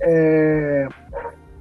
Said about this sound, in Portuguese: Desculpa a barulheira aí, não sei se estão tá ouvindo mal o cachorro. Relax. Faz parte, faz parte, acontece.